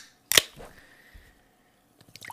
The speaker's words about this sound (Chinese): 让我一起听听气泡水的声音。